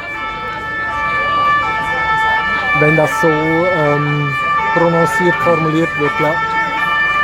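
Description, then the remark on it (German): A fire engine siren wails steadily outside, its sustained tones running through the whole stretch while people talk in the foreground. “Das ist die Feuerwehr. Das ist ja wie in New York hier.”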